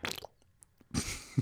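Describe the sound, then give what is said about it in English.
A voice imitates a fart with a short buzzing raspberry made with the mouth. A brief burst is followed by a near-silent pause, then a second, longer sputtering blast. “Oh, it that was a fart sound that I made.”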